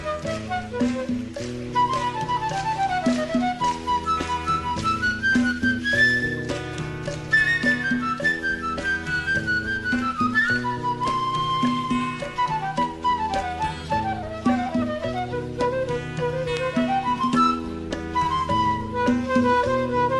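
A recorded guajira song plays continuously at a steady, full volume, with a flowing lead melody over a repeating bass line and rhythmic accompaniment, and no talking over it.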